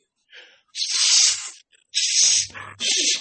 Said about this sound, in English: First, I'm going to clear my airways out because this is one of Rico Roxx's techniques. I clear out the nostril airways.